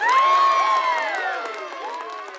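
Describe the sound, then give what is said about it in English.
Neighbors in the road cheering and shouting together as a huge meteor hits the moon, many overlapping high-pitched voices and whoops, loud and sustained throughout before easing slightly toward the end. “They don't hear anything from the ground, only their neighbors cheering in the road.”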